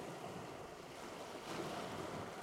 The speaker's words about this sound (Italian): Il mare è calmo. Il catamarano solca le onde dell'Adriatico, lasciando dietro di sé una scia di schiuma bianca e di mistero.